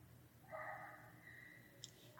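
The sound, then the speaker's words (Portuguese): A faint, distant dog barks once in a drawn-out, whiny way as someone walks it past a building's front entrance, trailing off into a quieter tone against a low background hum, with a small click near the end. “Olha, enquanto o cachorro tá latindo, deixa eu falar um negócio.”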